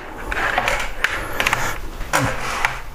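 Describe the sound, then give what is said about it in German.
A computer keyboard being taken out: a run of dry plastic clicks, light rattles and scraping handling noises, irregular and fairly quiet, with no voices. “jetzt könnte er, ja, kurz die Tastatur raus.”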